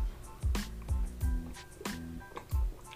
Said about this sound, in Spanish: me voy a tomar un poquito de agua porque me sacó la boca.